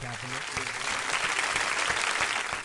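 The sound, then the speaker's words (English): A crowd applauds steadily for Colin Kaepernick being named GQ Man of the Year, dense clapping filling the whole stretch at a fairly loud, even level, with faint low voices murmuring underneath. “Round of applause”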